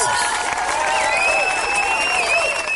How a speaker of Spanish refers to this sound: Y todavía le, y todavía le aplaudes